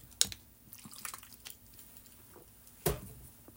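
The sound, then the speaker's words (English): Someone takes a drink of water: a sharp clink of a glass or bottle, soft faint sipping and handling sounds, then another crisp knock as it's set down. No talking. “So I'm going off of, hold on, I need some water.”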